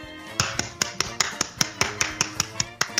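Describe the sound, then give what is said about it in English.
A few people clap lightly in a steady, even rhythm, a dozen or so sharp claps over a faint background hum, with no talking. “How was that for the thunderous applause?”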